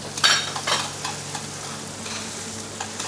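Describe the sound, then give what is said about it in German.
Pieces of veal are added to a hot pan where diamond-cut asparagus is already roasting, with a burst of loud sizzling, then settle into a steady crackling hiss with a few sharp pops and clinks as they are briefly seared, no one speaking. “So, und jetzt geben wir das Kalbchen dazu.”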